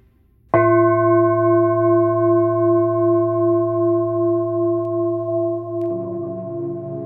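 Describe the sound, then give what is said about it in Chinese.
A singing bowl is struck once by a healing teacher at the close of a meditation and rings on in a steady, layered hum of tones, its low note slowly wavering. It stays loud with no voices, and the ring shifts slightly near the end. “好，借由颂钵的声音，我们慢慢的回到现在的时刻。”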